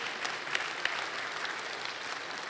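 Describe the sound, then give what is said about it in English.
A church audience applauds steadily, a dense wash of many hands clapping at moderate volume, with a few sharper claps standing out, sustained for the whole stretch without any voices, cheering the Landing, a Celebrate Recovery ministry for high schoolers, on its one-year anniversary. “Let's hear it for the landing, okay?”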